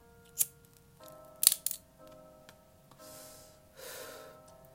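A lighter being flicked to light a cigarette: a sharp click, then a quick cluster of clicks, followed by two soft breathy hisses, with no one talking.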